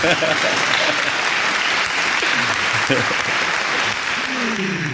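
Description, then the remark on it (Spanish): Steady applause from a crowd fills the whole stretch, dense and even in loudness, with a few voices faintly audible underneath the clapping. “aplausos, por favor.”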